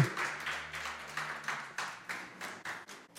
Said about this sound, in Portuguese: Você pode aplaudir o Senhor aí?